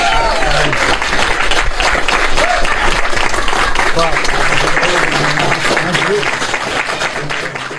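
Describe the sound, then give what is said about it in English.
Loud, sustained applause from a large audience for a guest fills the whole stretch, a dense wash of clapping with a few cheers and whoops rising through it, tapering only slightly toward the end. “The legend, Colin Quinn. Let him hear it.”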